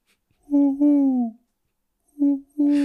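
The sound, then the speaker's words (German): A person mimics an owl with drawn-out, tonal hoots: a longer two-part call, a pause, then two shorter hoots, fairly loud with a breathy end. “Ich bin eine Eule. Über die großen Pupillen einfach. Huhu.”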